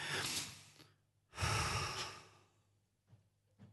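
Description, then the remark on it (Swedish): Two long, forceful breaths, a deep exhale followed by a loud drawn-out breath, then a couple of short soft puffs, performed as a demonstration of a paced labor breathing exercise from childbirth-preparation (prophylaxis) training. “Alltså, det här du säger att profylax är ju andning.”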